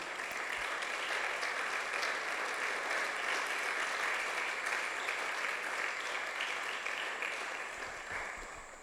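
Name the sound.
audience applauding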